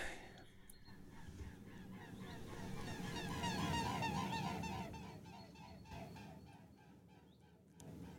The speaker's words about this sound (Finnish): Ja saapui Vartiosaaren kevään ensimmäinen joutsen pari. Joo, ne täällä viettää mielellään Reposalmessa aikaa. Piti ihan keskeyttää ajatus kuunnellakseen tätä luonnon ääntä.